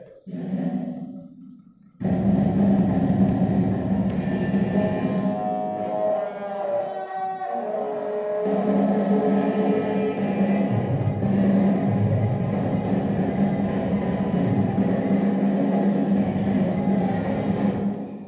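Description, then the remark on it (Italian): A loud, dense stretch of black jazz: a roaring, distorted wall of sound with a sustained tonal line emerging midway. It plays continuously after a brief quieter opening, with no talking. “Prima un esempio di cosiddetto black jazz.”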